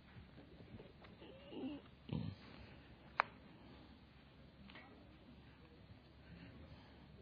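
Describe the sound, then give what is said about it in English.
A dog gives a couple of short, low, grunting snorts in a church with faint background murmur, followed by a single sharp click. “I love it when dogs come to church.”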